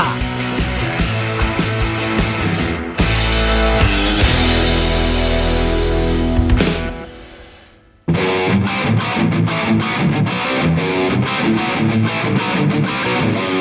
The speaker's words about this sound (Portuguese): Vamos chamar a vinheta e tocar logo essa bagaça. Vai, vinheta!